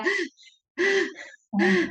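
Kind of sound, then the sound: vocal imitation, imitated heavy panting breath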